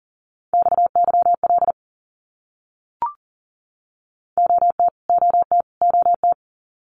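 Fast Morse code at 40 words per minute, sending abbreviations in a single steady beeping tone: one quick burst, a brief click, then the same short group sent three times in a row, clear with no voices.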